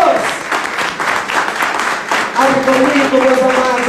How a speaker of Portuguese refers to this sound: Dá salva de palmas.